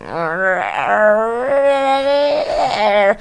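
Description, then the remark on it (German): A person imitates their own dog's whiny whimper with a drawn-out, nasal, wavering whine in a few connected pulls. It is fairly loud, with no words spoken. “sie hat auch so ein Quäng, so ein, so ein Quengel.”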